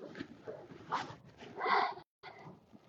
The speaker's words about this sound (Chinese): 听见这是都是雪的声音，我在踩着雪